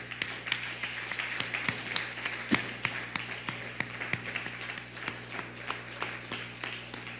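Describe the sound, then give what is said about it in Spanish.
An audience at a religious service applauds steadily for several seconds, a loud round of applause for all the nations: a dense wash of clapping with sharper individual claps popping out at irregular moments over a low, constant hum. No one speaks. “Así que vamos a dar un fuerte aplauso a todas las naciones.”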